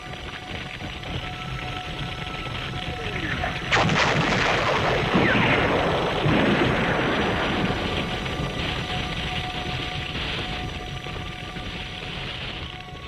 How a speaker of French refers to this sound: Elle marchait calmement au milieu des flammes et des explosions.